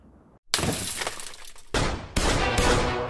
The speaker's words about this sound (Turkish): İçeride birisi var Alpay camı kır Alpay.